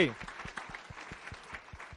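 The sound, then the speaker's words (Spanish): An audience applauds, with many hands clapping in a quick, fairly steady beat. The applause is soft and continuous for about two seconds, with a faint murmur of voices mixed in. “Date un aplauso.”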